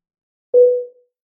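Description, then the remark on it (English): A single steady electronic beep, a pure mid-pitched tone lasting about half a second, starting abruptly and fading out, heard alone against silence; a warning tone signalling where a sensitive section begins so listeners can skip ahead. “About 50 ish minutes in, there will be a tone that sounds like this.”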